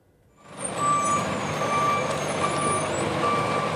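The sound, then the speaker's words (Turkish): A truck engine rumbles steadily while a high, evenly spaced reversing beep repeats over it as the truck comes to load tractors seized by the Tarım Kredi Cooperative in a village, the tenth tractor taken that day; the beeping continues throughout and no one speaks. “Bugün köyümüzde 10. traktör gidiyor. Tarım Kredi Kooperatif tarafından.”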